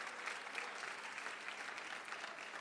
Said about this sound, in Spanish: Dele su mejor ofrenda de palmas al Señor.